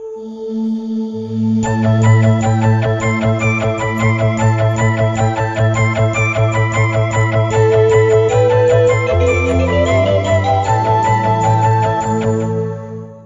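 A bright television-style jingle plays loud: quick, evenly pulsing bell-like chimes ring over sustained low tones, shifting pitch near the end before fading out. No one speaks.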